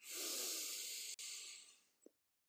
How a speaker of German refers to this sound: Sei dankbar dafür, dass du tief atmen kannst, so oh, toll. Also so einen richtig schönen Atemzug nehmen kannst. Es ist so schön. Ich mach's nochmal.